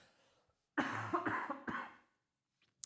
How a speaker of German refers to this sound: Oh, ich muss noch mal husten hier. Moment.